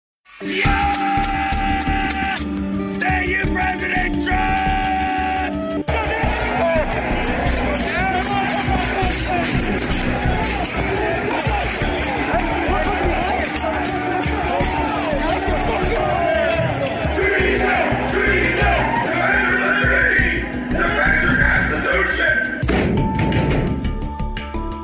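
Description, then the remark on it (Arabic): A chaotic crowd roars and shouts continuously during the storming of the US Capitol on January 6, dense overlapping voices with yelling and thuds, loud and unbroken throughout, with occasional higher-pitched tones cutting through the din. “وسط هذه الفوضى وهذا العنف اثناء اقتحام الكونغرس الامريكي في السادس من يناير”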